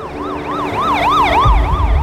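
police car siren wailing

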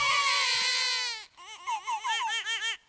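baby crying

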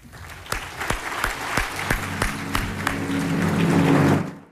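audience applause

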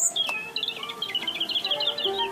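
european robin singing

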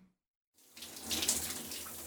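shower water running

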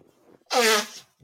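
nose blowing

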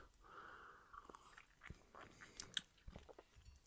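sipping coffee

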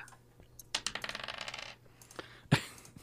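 dice being rolled

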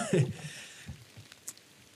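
rain falling

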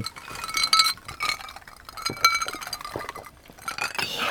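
glasses clinking

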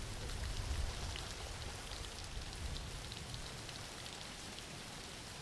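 rain falling

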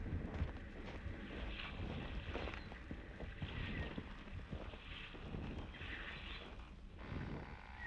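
boat on water

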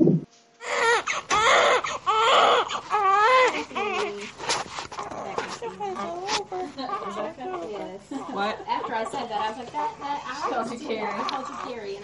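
newborn baby crying

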